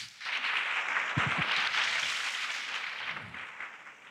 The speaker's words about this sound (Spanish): Ahora dele un aplauso al Señor por eso.